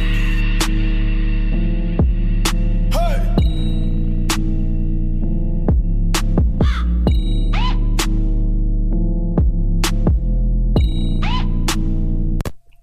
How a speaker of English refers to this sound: That had a fucking crow noise too. For sure. I think the crow noise is the fucking key to the rap beats these days, sir.